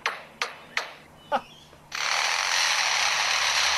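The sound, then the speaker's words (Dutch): A lyrebird that lived next to a construction site mimics its tools: four sharp hammer-like knocks in uneven rhythm, then a steady, loud buzzing like a power saw running continuously to the end. No talking. “En dus wat je nu gaat horen is enkel en alleen de vogel die het hameren, het zagen, de machines en zo imiteert.”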